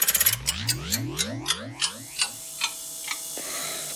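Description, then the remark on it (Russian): An antique clock ticks in a quick burst that gradually slows and spreads out, layered over warbling, sweeping tones like time being wound backward; no one speaks. “Старинные часы. Время назад.”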